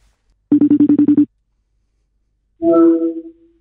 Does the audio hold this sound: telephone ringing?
yes